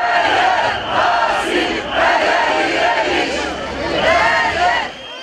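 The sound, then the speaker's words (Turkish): A large crowd chants loudly in unison at a protest rally in Kadıköy, Istanbul, many voices rising and falling in a steady rhythmic pattern with brief dips between shouted phrases. “İstanbul Kadıköy'de düzenlenen mitinge gelenler altı yoldan yürüyüşe geçti.”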